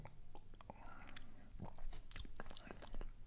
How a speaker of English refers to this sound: Okay, let me let me take a sip.